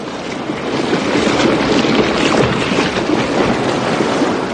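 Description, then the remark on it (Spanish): A colossal whirlpool churns in the sea, produced as an ichthyosaurus and a plesiosaurus disappear beneath the surface, a dense, continuous roar of rushing, swirling water that swells slightly at the start and then holds steady and loud, with no voices. “De pronto, el ictiosaurio y el plesiosaurio desaparecen produciendo un colosal remolino.”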